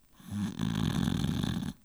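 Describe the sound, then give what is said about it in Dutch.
A female dog snores in her sleep, one long rasping, rumbling inhale that swells up and fades out after about a second and a half, with no voices. “ze snurkt weer verder.”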